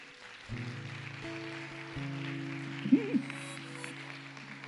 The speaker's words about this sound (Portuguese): Dá um glória a Deus aí. Aplauda ao Senhor.